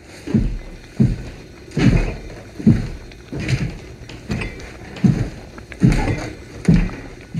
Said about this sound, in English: and we noticed that in the opening sequence when Dave Bautista's character is this massive hunking replicant is walking through his kitchen, you can hear the plates shake.